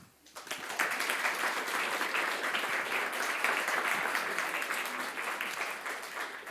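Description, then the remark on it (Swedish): An audience applauds steadily to welcome speaker Jack Werner to a talk, dense overlapping claps rising quickly and holding at a full, even level throughout, with no voices over it. “Men eh, da syns jeg vi skal ta godt imot eh, Jack Werner.”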